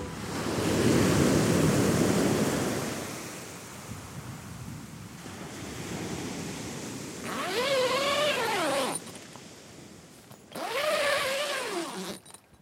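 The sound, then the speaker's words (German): Sea waves wash onto a beach of an East Frisian island in a loud, rushing surge that fades into a steady hiss of surf, with two wavering, high-pitched calls rising over the water near the end. “Also los geht's ab ans Meer.”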